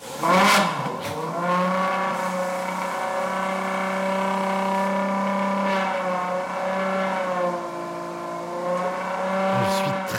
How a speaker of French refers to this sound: Or, la marque vient de commercialiser son plus puissant V12 de série, un moteur de 6 litres 2 et 660 chevaux. Un gros moulin livré avec la Ferrari FF, le premier break familial de la marque. Je suis allé l'enregistrer, écoutez.